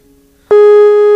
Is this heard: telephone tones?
yes